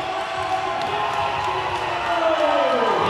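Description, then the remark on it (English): A loud arena crowd roars and cheers continuously as Harlem Bravado wins the X16 tournament, a dense wash of voices swelling slightly toward the end, with a whistle-like tone rising and falling through the din; the crowd is on its feet. “Listen to the crowd.”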